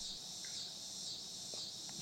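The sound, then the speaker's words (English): Cicadas drone in a steady, unbroken high-pitched buzz at moderate volume, with no talking; a brief low thump lands right at the end. “He, the cicadas are loving this.”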